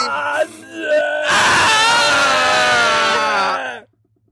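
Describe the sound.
A person imitates a dying scream: a few short strained cries, then a loud, long, wavering wail lasting a couple of seconds before it cuts off abruptly into silence.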